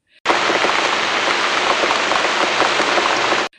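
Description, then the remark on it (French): Heavy, cold rain pours down on a beach in cool weather in a dense, steady hiss, loud, with raindrops pattering continuously on surfaces for a few seconds before cutting off. “Une pluie s'abat sur nous.”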